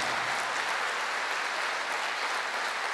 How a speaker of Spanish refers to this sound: Ahora sí, dele fuerte ese aplauso al Señor. Fuerte ese aplauso.